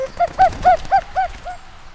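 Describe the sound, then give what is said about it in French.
A female common cuckoo calls in a quick run of about six harmonic, slightly falling notes, evenly spaced, with no voices over it. “Oh, je rêve Qu'est-ce qu'elle fait là, celle-là Elle va me faire repérer à coucouler comme ça”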